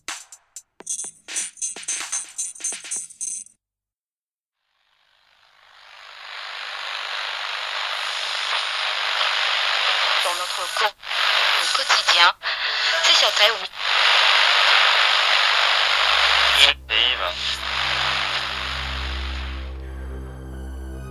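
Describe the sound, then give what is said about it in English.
Choppy bursts of radio crackle give way to a steady wash of hissing static that swells up, breaks with brief glitches as the dial turns, then settles onto a low humming tone. “Turn your dial to the edge of the radio static there, you will find the lost signal.”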